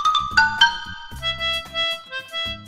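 A xylophone plays a bright, quick melody of struck notes over a steady backing beat with low accompaniment, clear, with no voices.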